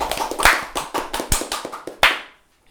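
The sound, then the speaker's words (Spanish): A short burst of audience applause: many quick, irregular claps overlapping for about two seconds, a final sharp clap, then it fades to quiet. No one speaks. “¡Aplausos!”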